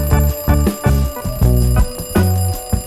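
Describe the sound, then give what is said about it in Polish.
Three alarm clocks received as a gift ring at once, loud, their bright metallic jangling overlapping in a busy pulsing rhythm with no talking. “Trzy piękne zegarki, jak ja uwielbiam dostawać prezenty.”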